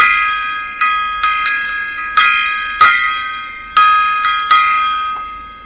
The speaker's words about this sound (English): Oh yeah, gong time.